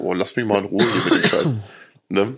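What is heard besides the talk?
cough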